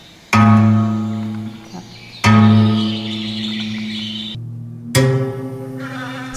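Bees buzzing in a meadow soundscape at an exhibition: three loud droning swells start abruptly, each holding a steady hum for about two seconds before the next begins, with high twittering above.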